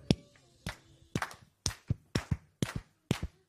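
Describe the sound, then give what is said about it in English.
Sharp hand claps in a steady rhythmic pattern, some falling in quick pairs, from a group clapping together to praise God, moderately loud with no talking. “We're going to clap our hands, stomp our feet, and we're going to give him praise.”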